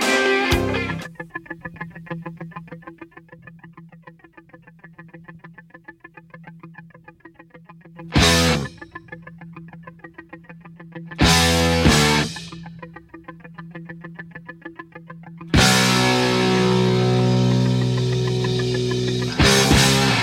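A distorted electric guitar opens a rock song with a chugging, muted riff, punctuated by loud full-band chord stabs around eight, eleven and sixteen seconds, then sustained crashing chords.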